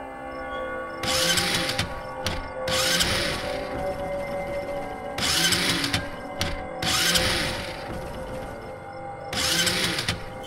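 A motorcycle engine cranks over and over without catching, five loud whirring, grinding bursts of the starter separated by short pauses, with no voices.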